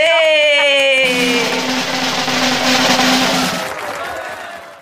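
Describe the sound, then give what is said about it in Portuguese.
Loud applause and cheering, opening with a high, sliding whoop, then a dense wash of clapping that swells for a few seconds and fades away. “Que rufem os tambores! Uhul! Palmas!”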